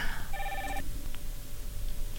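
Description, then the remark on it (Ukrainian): A short burst of electronic telephone ringing as a listener calls in to a live broadcast, a bright warbling tone lasting about half a second, then cutting off over a low, steady background hum with no talking. “Я думаю, можливо, наш слухач, який нині телефонує, хоче щось про да, них будь запитати.”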